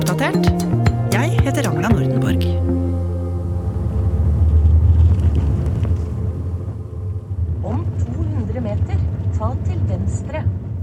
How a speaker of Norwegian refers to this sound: så satte jeg meg i bilen for å kjøre til gården til Kåre Skogstad